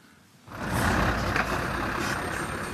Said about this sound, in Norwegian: nærmer seg fergekaia i Horten i en semitrailer fullastet med søppel.